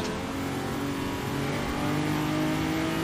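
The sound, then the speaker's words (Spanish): A car engine in the racing game Assetto Corsa, on the NoHesi server, revs loudly and steadily as the car weaves through traffic, its droning, harmonic roar holding for about three seconds and swelling slightly partway through, with no voices present. “Mira qué guapo haciendo swimming ahí entre, entre el tráfico.”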